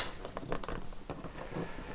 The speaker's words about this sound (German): So, das jetzt um Spülmaschine ist ausgeräumt und eingeräumt und alles, was noch per Hand gespült werden musste, wurde gespült.